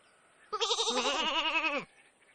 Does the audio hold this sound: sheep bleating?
yes